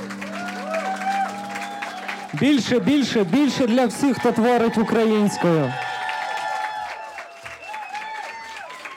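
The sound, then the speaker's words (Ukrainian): A man shouts energetically, urging the audience to support a band with applause, over steady audience applause, the clapping a dense, continuous patter running beneath his voice and carrying on after he stops, with a sustained musical tone at the start. “Підтримуйте, підтримуйте оплесками, підтримуйте лайками, підтримуйте їх в соціальних мережах, того що це гурти, які варті того, щоб вони побували в ваших закромішних бажаннях і вухах.”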